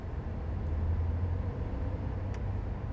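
Steady low rumble of a car in motion on the way to Mar del Plata, Argentina, heard from inside the cabin, with continuous engine and road noise and a couple of faint brief ticks; no one speaks.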